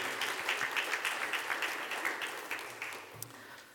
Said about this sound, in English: If you appreciated the praise team, would you give them a round of applause today? Thank you.